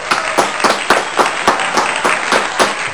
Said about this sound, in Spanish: Así que le vamos a dar la bienvenida y un gran aplauso